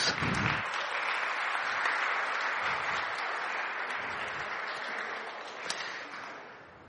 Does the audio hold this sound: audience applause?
yes